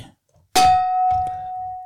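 A single gong strike with a sharp metallic attack, then a steady ringing tone that hangs on and slowly fades, with some soft low rumbling underneath.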